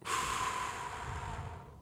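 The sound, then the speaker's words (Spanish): A steady breath drawn in through the nose, a breathy hiss lasting under two seconds with no pause, heard alone with no talking; the in-breaths of a calming breathing exercise of two breaths in, one out. “La respiración es súper importante. Entonces, recuerden, dos adentro,”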